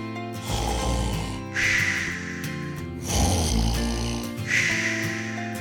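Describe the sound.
A voice imitates Goldilocks snoring as she falls fast asleep in Baby Bear's bed, in a telling of Goldilocks and the Three Bears: two slow, rhythmic cycles of a rasping inhale followed by a breathy exhale, fairly loud, with no talking.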